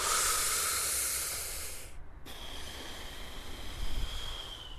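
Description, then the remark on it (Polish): A long, deep breath drawn in with a loud, airy hiss, a brief pause, then an equally long, steady exhale, with no talking over it. “A może zrobić taki bardzo głęboki wdech, a potem wydech?”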